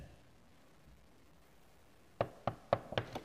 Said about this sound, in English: Okay, let's go knock on the door. I'll stand on the other side of the door and you knock on it, okay? You knock on that side of the door and I'll stand on this side of the door. All right, go ahead.